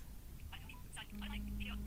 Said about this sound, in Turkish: Evet şu anda telefon çalıyor. Bir saniye.